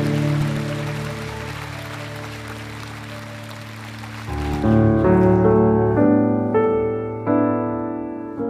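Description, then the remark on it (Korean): An audience at a worship service applauds steadily for about four seconds, offering applause of glory to the Lord, over sustained keyboard chords; then the clapping stops and the keyboard carries on alone with louder, shifting chords. “찬양과 영광을 받게 합당하신 그 주님 앞에 영광의 박수를 올려드리며 나아갑시다.”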